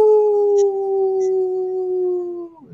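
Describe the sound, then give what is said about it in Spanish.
A person imitates a wolf howl: one long, sustained, slightly falling tone held for over two seconds, loud, ending in a brief drop at the close. “Bueno, señor, retrocede que ya estamos cerrando de Blue Wolf. ¡Aú!”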